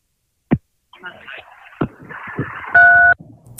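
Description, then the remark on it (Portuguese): Phone line interference during a phone call: sharp clicks and pops, a stretch of garbled, distorted signal noise, then a brief loud steady electronic tone before it cuts off. “Que deu interferência aqui.”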